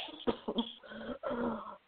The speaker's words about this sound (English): Big coughs, spraying blood splattering across Ken's shirt.